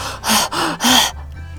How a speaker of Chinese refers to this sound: 灰狐狸呼哧呼哧的喘着气。